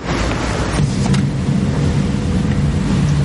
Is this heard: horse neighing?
no